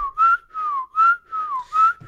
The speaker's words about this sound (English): That was a good whistle.